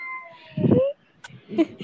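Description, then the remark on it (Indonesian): A cat meows twice, a longer rising meow followed by a shorter one after a brief pause, with some background hum. “Aku Kucing aja mengeong loh”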